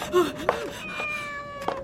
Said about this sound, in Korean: 그냥 고양인데.